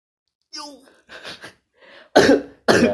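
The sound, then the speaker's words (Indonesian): A coughing fit after choking: a strained, gasping start followed by several harsh coughs that build into two loud, explosive bursts, alone. “kesedek batuk”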